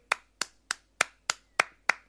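A thin, feeble recorded applause effect played back: seven sharp single claps at a slow, steady pace, about three per second, sounding like one person clapping alone with no voices.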